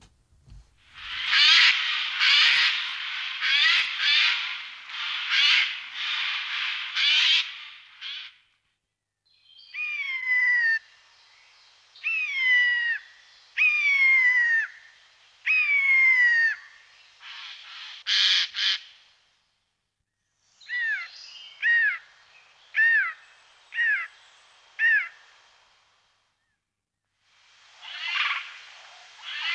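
A bird imitating other birds runs through varied calls, harsh raspy bursts then a series of high, downslurred screeches like a raptor's, followed by quick repeated notes, loud with no talking.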